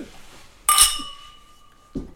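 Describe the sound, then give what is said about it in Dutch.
A single bright clink of glasses touched together in a toast before drinking rings out sharply and lingers with a clear sustained tone that slowly fades, followed by a faint soft sound near the end. “Klinken.”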